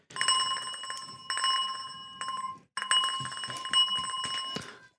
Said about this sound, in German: Okay, schau mal, siehst du, was ich da in der Hand halte? Ein Mikro. Nein. Eine Glocke. Ja, genau. Und jetzt pass auf, ich weiß nicht, ob es funktioniert, aber ich hoffe.